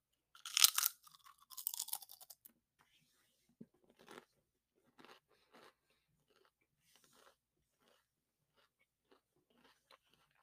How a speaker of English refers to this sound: So, sea salt, I'm going to do two to three chips or three to four chips per flavor, and hopefully it goes well. So, here we go. Again, sea salt, let's go.